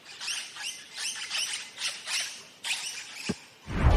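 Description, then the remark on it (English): Birds mating at Albert Park Racetrack in Melbourne give a run of high, squeaky chirping calls in quick bursts, fairly soft, with no talking; a low rumbling thud breaks in near the end. “Strap in to witness all the action at Albert Park Racetrack, like birds mating”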